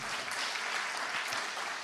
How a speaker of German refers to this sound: Also, ja genau, dürft ihr gerne mal klatschen.